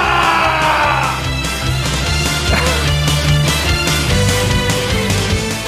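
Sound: applause and cheering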